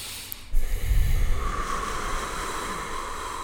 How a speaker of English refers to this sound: Let's have like a breathing exercise. Because I have to breathe in.